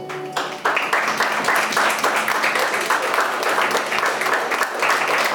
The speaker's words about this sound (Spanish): Eso merece un aplauso.